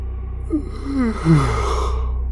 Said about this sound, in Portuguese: Bocejo, outra vez.